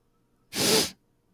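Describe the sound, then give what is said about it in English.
A single loud sniff right up against the microphone in a voice-over recording booth, a short breathy rush of air lasting under half a second against near silence, with no talking. “somebody sniff into the mic but it's really loud in and my ears, so it has you.”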